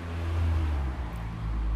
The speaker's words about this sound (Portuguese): Juro, eu não sei porque é que vim gravar para aqui, mesmo. Isto é, é que não me param de passar carros e fazem esse barulho.